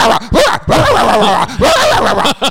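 A dog barks and yelps in a string of loud, high-pitched bursts, some drawn out into whiny, wavering cries, with brief gaps between them.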